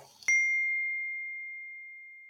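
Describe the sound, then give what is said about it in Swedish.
A single bright clink of glasses touching in a toast, clear, leaving a pure ringing tone that slowly fades away over a couple of seconds with nothing else around it. “Ska vi, eh, ska vi köra en liten, eh, liten skål på det då kanske”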